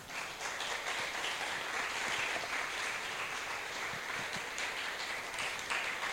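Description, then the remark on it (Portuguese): Steady, dense applause from a crowd, given as a round of applause for the Lord, many hands clapping at once in a continuous, loud wash of crackling sound that holds evenly for several seconds without voices. “Eu quero uma salva de palmas para o Senhor.”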